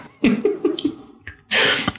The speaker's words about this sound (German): Gesundheit.